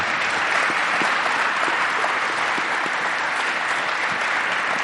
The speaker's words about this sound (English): I think we should give them a round of applause, for what they've done.